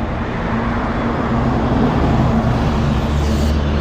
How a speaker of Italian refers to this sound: qui ci sono due sono quasi schiacciato in mezzo a due autobus